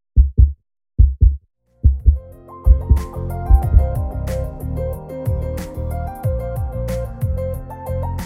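A deep, thudding heartbeat in paired lub-dub beats plays alone at first, then keeps pulsing steadily beneath music that swells in after a couple of seconds.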